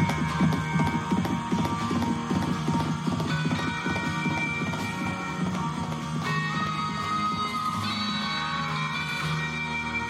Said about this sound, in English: Fuck you, Clinton said as the man stood and slapped his horse's backside. The animal bolted, dragging Clinton up the rail line and into the night.